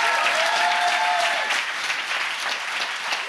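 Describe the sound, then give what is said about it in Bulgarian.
A large crowd claps steadily and loudly, a dense wash of applause filling the space, with a faint whistle or cheer near the start before the clapping carries on evenly. “О, ръкопляскай, като че Бог подготвя твоето бъдеще.”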